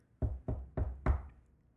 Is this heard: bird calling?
no